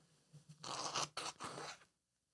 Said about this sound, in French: Là, les gens vous entendent vous moucher, mais, mais c'est pas parce que vous pleurez, je ne vous fais pas de peine. C'est parce que vous avez un bon rhume.